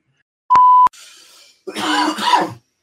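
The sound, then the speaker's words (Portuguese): A brief electronic beep and a soft hiss, then a small cough that rolls into a rough throat clearing lasting about a second. No one speaks. “Ele dá uma tossidinha, limpa, é. limpa a garganta, é um pigarro.”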